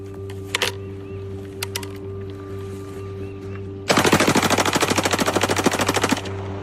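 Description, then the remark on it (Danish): A couple of sharp single gunshots, then a long rapid automatic rifle burst fires continuously for about two seconds at a row of Bud Light beer cans. The burst is loud, with a steady machine-gun rhythm over a low background hum. “Så tager han så sit automatvåben frem og så pulveriserer han med en kugleregn den her række af Bud Light dåser, der står foran sig.”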